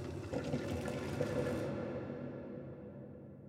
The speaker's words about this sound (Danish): Her kunne man måske tænke på et eksempel med et lille kaffefilter, hvor vandet løber igennem, mens kaffegrums så bliver filtreret frem.